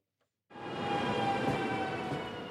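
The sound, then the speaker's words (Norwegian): A train rumbles steadily along the rails after a brief silence, a loud, continuous rolling noise with sustained metallic tones ringing above it, without any voices. “Det blir ikke så ofte du får høre lyden av tog denne sommeren.”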